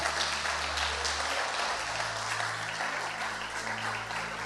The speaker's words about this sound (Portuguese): É uma linda salva de palmas para o Senhor.